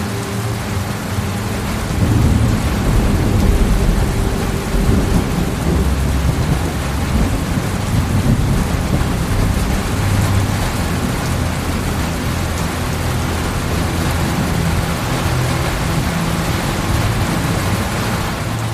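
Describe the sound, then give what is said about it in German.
Steady summer rain pours down at night while deep thunder rumbles and rolls continuously underneath, a full thunderstorm with no voices present. “Atme langsam und tief und spüre, wie beruhigend der Sturm ist.”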